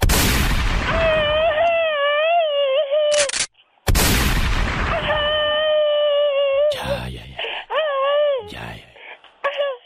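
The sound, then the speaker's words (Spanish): A machine-gun shout sound effect: bursts of rapid gunfire alongside a loud, wavering, high-pitched wailing scream, played twice with a short gap, with further sharp bursts at the end. “Hoy está celebrando su cumpleaños y que de regalo quiere un grito ametralladora”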